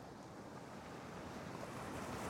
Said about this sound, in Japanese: 静かな海の音が耳に届く